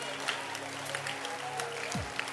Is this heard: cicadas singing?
no